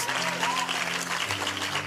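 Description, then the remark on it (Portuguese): An audience claps for the drummer, a dense wash of applause that holds at an even level for the full two seconds, with a low sustained tone running underneath. “Ele é incrível, Love vamos him. dar uma salva de palmas.”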